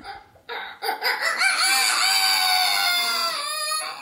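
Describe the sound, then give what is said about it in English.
A man's voice imitates a rooster crowing, a loud, drawn-out cock-a-doodle-doo with rising and falling pitch, alone, preceded by a couple of short breathy starts; he learned the imitation while living in an apartment in Tokyo. “I have a friend who's from Tokyo, and when he was living in an apartment there, he learned to imitate a rooster”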